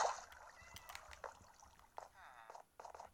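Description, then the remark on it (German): A splash as water is accidentally placed in a video game while building, then a steady gurgling flow of water, moderately loud, with a few brief bursts of other game noise. “Oh mein Gott, ich habe gerade außersehen Wasser platziert.”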